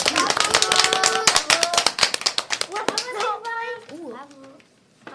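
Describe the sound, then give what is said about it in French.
A group of CM1 primary-school children applauding a classmate's reading in a classroom, a quick irregular patter of many hands, with young voices calling out over it; the applause fades after a few seconds, leaving children's chatter. “Bravo, on peut l'applaudir, on peut l'applaudir, c'est bien.”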